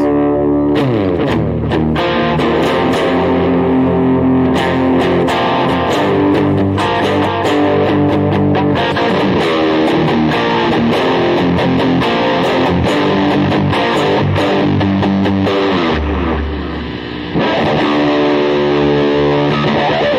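A distorted electric guitar plays continuously, dense harmonic chords and riffs with sharp picked attacks, loud and steady throughout with no voices.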